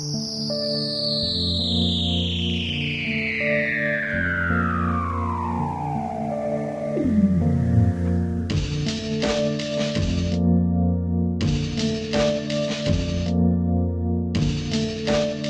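A long eerie underwater seal call recorded at Ross Island, Antarctica, glides steadily downward in pitch over several seconds, set against a sustained musical drone, with rhythmic percussive bursts joining in afterward.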